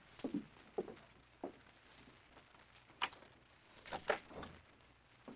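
A few soft, evenly spaced footsteps approach, then a door handle clicks and rattles as a door is pulled open, close by and fairly quiet, with no voices.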